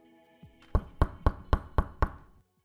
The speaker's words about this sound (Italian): Poco dopo l'abbandono del compositore originale, un giovane vestito da rockstar bussa infatti alla porta dell'ufficio.